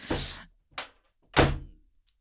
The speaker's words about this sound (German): So. Die, hier ist so eine Tür, die, die geht, geht, einfach nicht zu. Ja. Aber alle Türen hier gehen nicht gut zu.